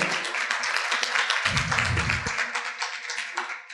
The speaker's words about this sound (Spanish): Primero un aplauso para ti por estar aquí a los 22.